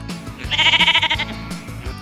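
A single sheep bleats once, a close, fairly loud, quavering baa lasting under a second, with faint background noise and no talking.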